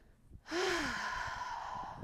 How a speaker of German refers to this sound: Und äh, was, wir, was mir dabei ähm, körperlich zum Beispiel auch noch hilft, das ist der Atem. Mm, dass ich wirklich beim Ausatmen, also ich atme ganz normal ein und beim Ausatmen, da atme ich so richtig.